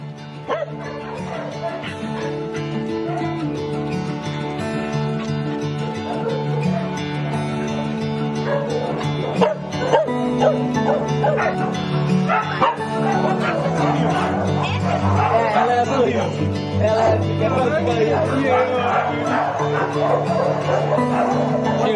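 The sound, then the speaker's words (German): Many dogs bark, yip and whimper together in a constant, overlapping chorus at a dog shelter where they are kept outdoors in an open area with cover from rain and heat, not in kennels, with a few human voices faintly mixed in. “Sie sind alle draußen und werden nicht eingesperrt oder in kleinen Bereichen oder Zwingern gehalten.”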